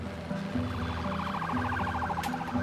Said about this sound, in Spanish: Y lo primero que escuché fueron los sonidos de las ambulancias, de los helicópteros,